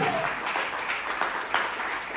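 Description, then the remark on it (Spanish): Steady crowd applause given to the Lord, a dense rattle of many hands clapping at an even, sustained level with no voices on top, holding throughout. “Den un aplauso al Señor que tiene propósitos en ustedes y conmigo.”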